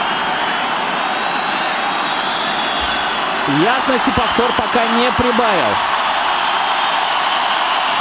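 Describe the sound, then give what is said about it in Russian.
A large football stadium crowd whistles in protest at a disallowed goal during a Krasnodar versus Rostov match, a dense, steady shrill roar filling the whole stretch, with a commentator's voice briefly speaking over it partway through. “Негодует стадион, вы слышите свист.”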